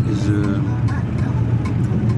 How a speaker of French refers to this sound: Il est 15h, je suis dans un bus euh, très moderne, bonne conditionné.